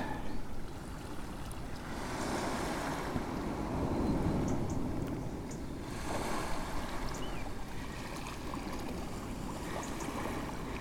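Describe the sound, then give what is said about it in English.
Outdoor shoreline ambience on the beach at Helford Passage below the Ferry Boat Inn: steady wind rumble and lapping water, with a low hum of boats in the background. Soft swells of noise rise and fall, and no one speaks. “I've reached Helford Passage and I'm on the beach below the ferry boat inn.”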